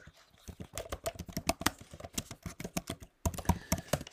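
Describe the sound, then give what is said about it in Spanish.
Rapid, uneven clatter of keys on a computer keyboard, fairly loud, with a brief pause near the end before the typing resumes. No voices. “Se nota que estoy tecleando, ¿no?”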